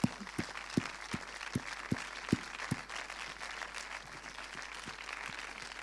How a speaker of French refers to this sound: On applaudit